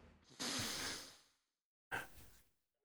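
Two loud, harsh nasal snorts from a dog, each a noisy rush of air through a clogged nose, the first longer, separated by a brief silence, heard up close with no talking.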